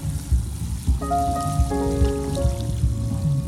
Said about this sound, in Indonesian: Suara ombak lagi.